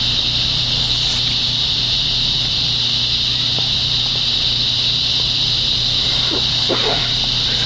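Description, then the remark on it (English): A coastal lyric cicada (lyricen virescens) buzzes loudly and steadily from start to finish, a harsh, grinding drone like an angle grinder that never lets up, with a few faint knocks and rustles near the end. “cicadas sound like an angle grinder tool steadily grinding a slightly uneven surface. Coastal lyric cicada.”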